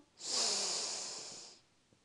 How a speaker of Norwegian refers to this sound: Vi gjør det en gang til. Pust godt inn med nesa.